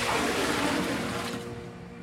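A mechanical stirrer continuously churns liquid in a giant pot, a continuous sloshing wash over a low steady motor hum, fairly loud, easing off slightly toward the end.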